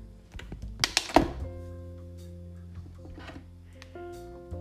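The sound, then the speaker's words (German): A blender cup is twisted to the right off its base: a quick run of plastic clicks ending in a solid thunk, then a steady low electrical hum carries on quietly. The cup holds freshly blended banana milk. “Jetzt den Becher nach rechts drehen.”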